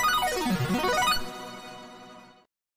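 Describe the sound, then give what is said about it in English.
A bright electronic chime, a bell rung to start the show, rings out alone: a quick swooping down-and-up tone flourish, then sustained bell-like notes that ring and fade over about a second before cutting off. “Thank you, Brian H, for ringing the bell.”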